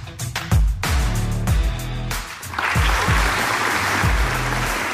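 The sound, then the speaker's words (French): Music with a steady, thumping low beat plays, then an applause sound effect, a burst of dense crowd applause, swells in halfway through and keeps going loudly over the rhythm, played on an iRock radio show. “T'as-tu des, des, son d'applaudissements?”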